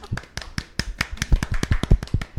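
Brief applause from a small group: quick, uneven, sharp claps overlapping in a loose patter for a couple of seconds, moderately loud, with no voices over it.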